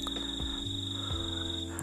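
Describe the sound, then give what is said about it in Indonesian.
A steady high-pitched trill of crickets chirping at night in the countryside, with a gentle breeze, runs through the whole stretch at low volume over a constant low hum, with no talking. “Uh, sengaja gue bikin podcast atau bisa dibilang uh, cerita receh kita dan gue bikinnya malam asik ya sambil ngedengerin suara jangkrik”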